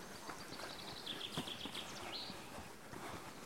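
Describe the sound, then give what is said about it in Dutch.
A common chaffinch sings a short, rapid run of bright repeated notes ending in a quick flourish, over steady outdoor background noise. “Nou, de vink zit mooi te zingen.”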